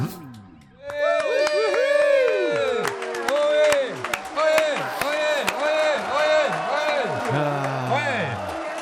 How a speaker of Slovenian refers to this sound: Poslušaj v Sokolskem domu, kako ploskajo, kako je noro.